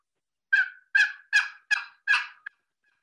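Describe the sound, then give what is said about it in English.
A turkey hunting call gives five loud, raspy yelps in a quick, even rhythm, each dropping off, followed by a brief click. No voices are heard. “That's the one I usually take with me hunting when at the box.”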